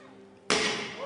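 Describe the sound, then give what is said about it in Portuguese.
An iron ball thrown against an armored car windshield strikes it with one sudden, loud crack halfway through, followed by a bright, sustained crunch of shattering glass; the ball stops in the glass without passing through. Before the impact only a low steady hum is heard. “Mas ele jogou também uma bola de metal contra o para-brisas e não deu. O vidro espatifou perante um Musk meio sem graça e a gente ouve aí.”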